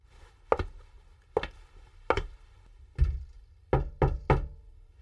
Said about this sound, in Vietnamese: Anh lần đầu gõ cửa nhà hàng xóm sau một tháng chuyển nhà đến đây.